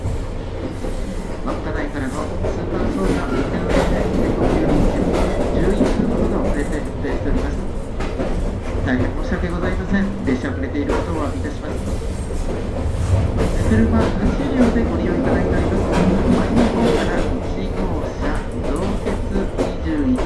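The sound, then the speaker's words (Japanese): The last Hamanasu express train, bound for Aomori, departs Sapporo Station and rolls steadily along the rails. It is run by JR Hokkaido and is about 11 minutes late. A continuous rumble with faint wheel clatter and squeal, while an onboard conductor's announcement is heard faintly and muffled beneath the noise. “The last express train "Hamanasu" departing from Sapporo S”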